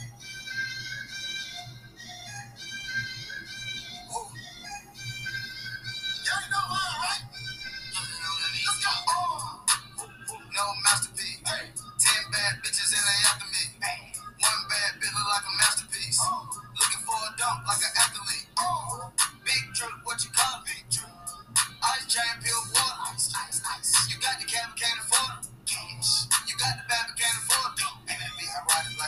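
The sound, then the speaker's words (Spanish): A hip-hop track plays loud and steady, a soft melodic intro giving way after a few seconds to a punchy, rhythmic beat with deep sustained bass and rapped vocals on top. “Bueno, vamos con la siguiente, que es mi canción favorita y esta me encanta.”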